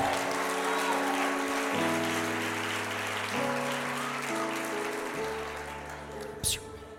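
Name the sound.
audience applauding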